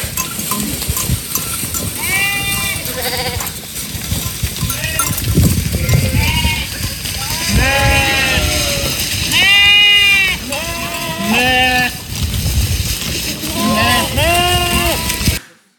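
A flock of sheep on the Lemelerberg bleats repeatedly, many overlapping wavering cries at varied pitches, loud and continuous over a rumbling background with faint bell-like clinks.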